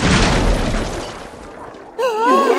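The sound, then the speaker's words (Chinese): A heavy crashing smash of a shrine being smashed bursts out loud and full, its rumbling debris noise fading over about a second and a half, then a voice cries out with a wavering exclamation. “看我砸了这碍事的神庙！”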